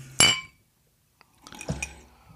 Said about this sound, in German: Ich sag mal so, ich stoß mal auf dich an, ne? Ich nehme mal hier mein Glas